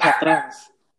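A slightly agitated dog lets out a quick pair of loud barks that trail off into a short whine, followed by silence.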